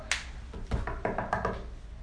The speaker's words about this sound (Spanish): Vamos ah, con el jajam, le tocaba la puerta al jajam.